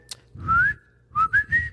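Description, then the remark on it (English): A person whistles a short tune: one long rising note, a brief pause, then three quick notes climbing and holding, with breathy air underneath. “Can you whistle? Yes. I used to be able to before Oh my gosh, guys, listen to this talent.”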